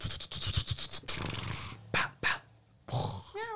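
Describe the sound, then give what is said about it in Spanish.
A cat sound effect from a zombie first-person shooter video game: a cat hisses and spits in a string of harsh, noisy bursts, then lets out a short, high, wavering yowl. No one speaks. “Otro gato.”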